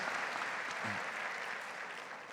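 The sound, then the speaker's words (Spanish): An audience applauds for the actors, a dense, steady wash of many hands clapping that holds at an even level for the whole stretch, with no voices over it. “Un fuerte aplauso para estos actores.”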